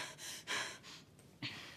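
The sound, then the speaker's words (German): Rapid, panicked breathing with sharp gasping inhales, several quick breaths in a row, fairly loud, no talking. “Ey, ruhig atmen. Ruhig atmen.”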